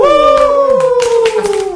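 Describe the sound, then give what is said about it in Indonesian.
Scattered audience applause welcoming two guest bands, with claps popping irregularly beneath a loud, sustained howling whoop whose pitch wavers and slowly falls across the whole moment. “Banyak suara tepuk tangan nih.”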